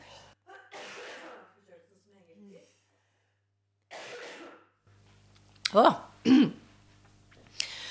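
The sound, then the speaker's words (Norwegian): A speaker coughs: a few sharp coughs in quick succession near the end, after some breathy throat clearing and exhales, with a brief murmured vocal sound in between. “Nå må jeg hoste litt.”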